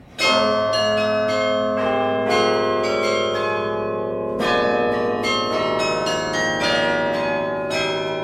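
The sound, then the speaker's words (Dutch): Carillon bells in Ghent, played by the city carillonneur, ring out in a steady melodic run, many bright overlapping strikes with long shimmering harmonic tails, loud and sustained throughout, with a fresh cluster of notes partway through and no voices. “Als u hier op zondagmorgen bent of elke eerste vrijdagavond van de maand, kunt u de stadsbijaardier aan het werk horen.”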